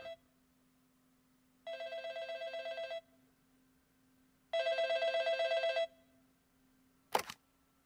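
A telephone rings twice at a 911 emergency call centre, each long trilling burst separated by a pause, loud, followed by a sharp click as the dispatcher picks up the receiver. No one speaks.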